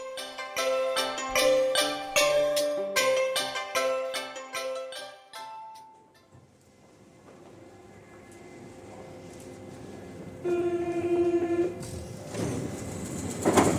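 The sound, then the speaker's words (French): A commuter train, the RER E to Roissy, at a platform: a chiming tonal signal plays first, then low rumbling as the train moves, with a brief squealing tone and rising mechanical noise near the end. “Le jour du départ, Julien prend le RER e pour Roissy.”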